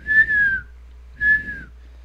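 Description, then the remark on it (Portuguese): Someone whistles two short, slightly falling notes with a pause between them, imitating a bird's song. The whistling is clear, with no talking. “Aí tem um passarinho cantando.”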